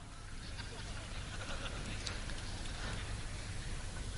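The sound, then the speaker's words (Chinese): Sustained applause from a crowd, a dense, even patter of many hands clapping at once that holds steady and grows slightly louder midway through, with no voices standing out. “掌声鼓励一下。”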